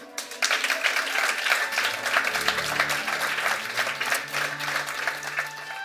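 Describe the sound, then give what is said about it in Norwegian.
A crowd applauds steadily, dense clapping spread across the whole span at a fairly loud, even level, with a low murmur of voices underneath. “Gi dem en stor applaus.”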